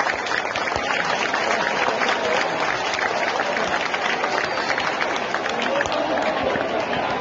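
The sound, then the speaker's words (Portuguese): Sustained applause for the Fortaleza football team. Dense overlapping claps form a steady, loud wash of sound that holds evenly for the whole stretch without pausing. “Ouçam as palmas que eu vou”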